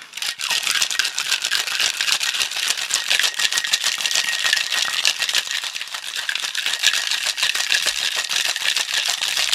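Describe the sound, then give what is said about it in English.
Steady, rapid rattling of ice shaken hard in a cocktail shaker, a dense continuous clatter that runs loud for several seconds with no talking. “We can shake this up and then pour it out.”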